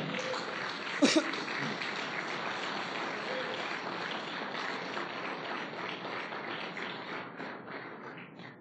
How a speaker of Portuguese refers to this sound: Dá uma linda salva de palmas. uma aplauso.